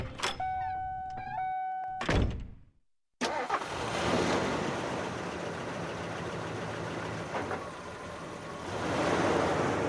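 A car's starter whines and cranks for about two seconds, then a thunk and a brief silence before an engine roars to life and keeps running loudly and steadily.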